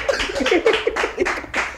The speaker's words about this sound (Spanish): Coño, un aplauso, vale, no jodas.